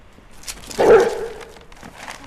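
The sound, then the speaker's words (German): A nervous female dog on a leash lets out one sharp, whiny bark that trails into a brief whimper as a car with a trailer drives past, loud against a quiet background, with no one talking. “Die Hündin wird nervös, macht plötzlich einen großen Satz und zerrt so heftig an der Leine,”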